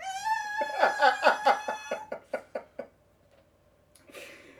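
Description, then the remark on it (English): A woman's voice imitates a dolphin with a shrill, high-pitched squeal that breaks into a quick run of chattering pulses, fairly loud, before trailing off into quiet. “and then all of a sudden she's making a, a dolphin sound, and then.”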